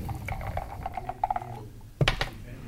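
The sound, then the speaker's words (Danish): A die is thrown from a dice cup to choose a discussion topic. It rattles with a run of quick light clicks, then lands with a sharp clatter and a few brief bounces before settling. Nobody speaks. “vil du ikke øh, starte med at kaste en terning?”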